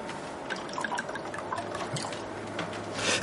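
A drink is poured: liquid trickles and splashes steadily into a glass for a few seconds, a soft gurgling pour with small drips, rising slightly at the end as the glass fills.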